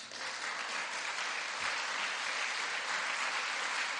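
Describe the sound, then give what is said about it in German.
A church audience at a service applauds a person who has decided to follow Jesus, a dense wash of clapping that holds at an even, fairly loud level throughout with no voices rising above it. “Jetzt wäre ein Applaus zu Ihre Gottes gar nicht schlecht.”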